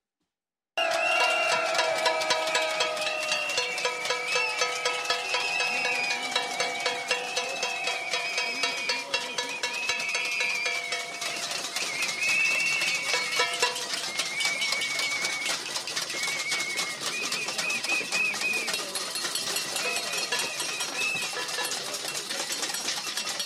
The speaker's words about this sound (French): Il a été accueilli par euh, les chants de plusieurs manifestants et par des bruits de casseroles. Regardez ou plutôt écoutez.